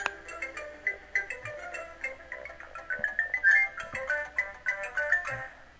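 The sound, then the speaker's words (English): A battery-powered Peppa Pig toy plays a Peppa Pig tune, a bright electronic jingle of quick, evenly paced notes that bounce up and down in a steady rhythm for several seconds, with no talking over it. “We sing that song. We, we whistle that tune all day long.”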